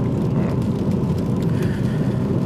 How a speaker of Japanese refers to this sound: 今ですね、えー、福岡市の自宅から北九州市小倉クロス FM に向かって車を走らせております